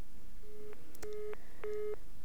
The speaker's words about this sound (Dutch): Mijn eerste reflex was om ons papa te bellen. Dit moest een vergissing zijn. Maar de telefoon bleef overgaan. Ik belde nog eens en nog eens.